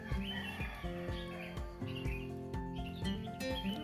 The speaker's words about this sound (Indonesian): masa kita ngobrol backsoundnya ayam sih suara burung-burung gitu kan lebih lebih seru kayaknya ya ini masih pagi sebenarnya masih jam 5 subuh jadi ya maklum ayamnya masih bertugas